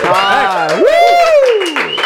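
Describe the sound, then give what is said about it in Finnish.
A loud, sustained cheer from the studio audience at a one-year anniversary celebration, with a whooping voice swooping up then sliding down in pitch over a steady wash of clapping, lasting about two seconds. “Ja kaikki himassa kättä yhteen nyt.”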